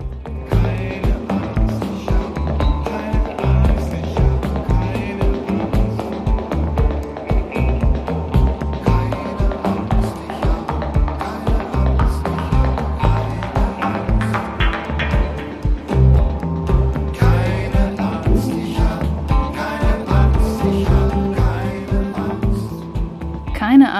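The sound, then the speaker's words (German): A band's song plays continuously, with a steady driving beat, bass and vocals layered over full, loud instrumentation throughout. “für mich aber noch viel mehr Soundtrack der Krise geworden, ist äh, dieses Stück hier von der Band …”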